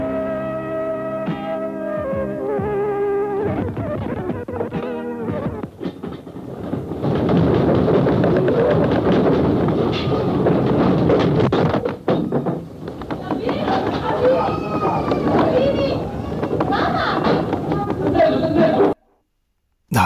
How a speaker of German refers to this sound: Es gibt eine Originalaufnahme von diesem Beben. Gemacht hat sie damals ein kleiner Junge, ganz zufällig, in dem Ort Tricesimo. Er nimmt da mit seinem Transistorradio eigentlich Schlagermusik auf, als dann das erste Erdbeben einsetzt.